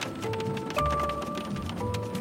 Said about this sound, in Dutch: we rijden nu door de regen in de richting van eh, een hotelrestaurant.